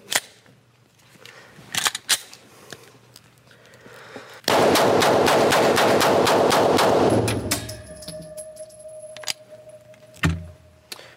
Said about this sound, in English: How could she have fired all of those 10 rounds so quickly?